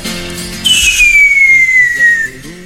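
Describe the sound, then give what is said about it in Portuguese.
A person whistles in imitation of a firework rocket: one long, clear whistle gliding steadily downward in pitch for over a second, fairly loud, over soft music in the background. “E vai passando essa música e, e os fogos.”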